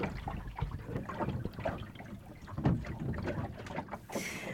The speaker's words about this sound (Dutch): Ik heb alles vastgezet en toen ging het toch een beetje klapperen. Toen heb ik alles losgelaten. Toen ging het wat minder klapperen